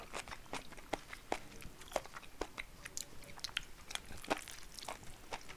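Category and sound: food or drink, chewing food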